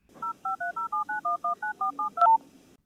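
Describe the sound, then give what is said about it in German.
A rapid series of about eleven short, evenly spaced touch-tone beeps as a phone number is keyed in to call someone, clear, each dual-pitched tone cut off crisply. “Easy, ich lüte ihm schnell an.”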